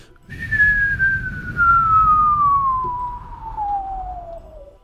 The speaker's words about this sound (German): Ähm, ihr hört ein Pfeifen. Ein fast schon comichaftes.